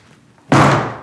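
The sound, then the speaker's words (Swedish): A single heavy thud as a woman kicks the door to her room, loud, with a short booming decay trailing off after the impact; the moments before are quiet. “Hon sparkar på dörren till rommet sitt och går fram till den stängda expeditionen igen.”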